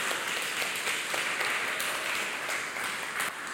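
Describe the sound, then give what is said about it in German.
A crowd applauds itself for having paid for the floor of the sports room at the Black Forest Academy, a Christian school, steady dense overlapping claps forming a continuous wash of sound at a consistent level, with no voices standing out. “Ihr könnt euch selber einen Applaus geben.”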